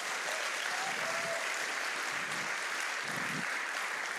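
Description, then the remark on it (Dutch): A church crowd applauds their pastors steadily, a dense, continuous wash of many hands clapping at an even loudness throughout, with no voices standing out. “They already applaud before I translated”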